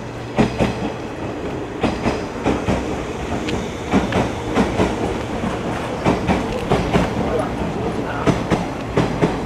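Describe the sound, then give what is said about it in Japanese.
A train rolls steadily along the rails, its wheels knocking out a repeating clickety-clack rhythm over a continuous low rumble, with no one speaking. “でも私なんて普段そんなしょっちゅう電車に乗ってるわけじゃないから電車の音だけでもう懐かしいよねいろんなことを思い出すよね電車の音一つで。”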